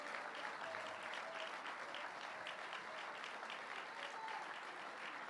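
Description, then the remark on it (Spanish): An audience at a Sunday church celebration service applauds steadily in praise of the Lord, a dense, sustained wash of many hands clapping at an even loudness throughout, with a few faint tonal hints but no clear talking. “¿Puede usted tributar un fuerte aplauso de alabanza al Señor?”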